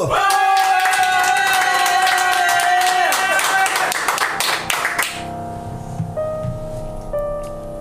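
Loud, dense clapping and some cheering from an audience over the final held notes of a song performed live on TSO Radio. After about five seconds the applause drops away and quieter music continues.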